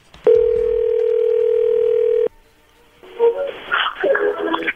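A steady, loud telephone ringback tone holds for about two seconds, then cuts off; after a short quiet gap, voices begin talking.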